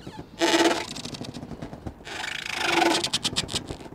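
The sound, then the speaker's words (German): Moored boats creak and squeak against a pontoon, with plastic fender balloons pressing against it, close up, in two long, grinding, groaning strains that end in a quick run of stuttering squeaks, with no voices. “Niedlich klingt es, das Knarzen und Quietschen, als ob kleine Monster vor sich hin brabbeln.”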